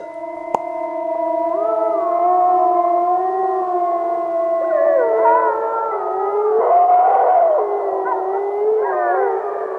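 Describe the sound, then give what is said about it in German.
A chorus of wolves howls continuously, several long wavering voices overlapping and sliding in pitch, growing fuller and more layered toward the end, with no talking. “Ja, jetzt ist ja eigentlich auch schon klar, worum es geht. Ja, der Wolf ist wieder da in Deutschland seit geraumer Zeit, vor allem in den östlichen und in den nördlichen Bundesländern.”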